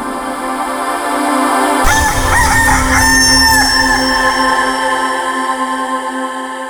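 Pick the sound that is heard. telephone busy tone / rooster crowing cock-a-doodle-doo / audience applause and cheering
rooster crowing cock-a-doodle-doo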